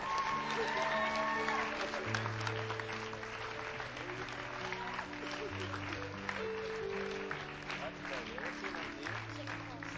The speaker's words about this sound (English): Well, it's going to be a great clap. Welcome to the family of God.